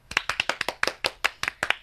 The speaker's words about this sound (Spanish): Esto es un aplauso, un, poco triste, que las dos, lo sentimos mucho.